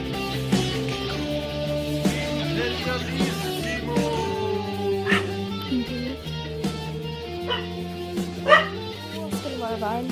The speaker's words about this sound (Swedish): Och lilla hunden Ebba som presenterar sig genom två mäktiga skällningar. Skall.